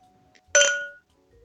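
A single bright clink of glasses touching in a birthday toast, fairly loud, with a clear ringing tone that fades away over about half a second amid quiet.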